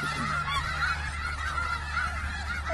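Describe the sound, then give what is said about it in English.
A crowd of geese honks continuously, many overlapping calls forming a loud, steady clamor with a low background rumble, no voices. “I was gonna do that girl who like sees all those birds and is like, look at all these chickens.”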